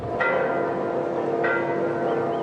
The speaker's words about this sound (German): Auch wenn die Glocken in Argentiniens Kathedralen noch so schön läuten